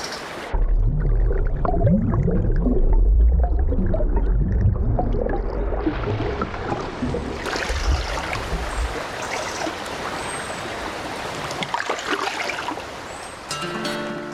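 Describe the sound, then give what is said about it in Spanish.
Flowing river water rushes steadily, a deep churning rumble at first that opens into a brighter, hissing wash with occasional gurgles. No voices are heard. “Sonido nativo sonido nativo del río.”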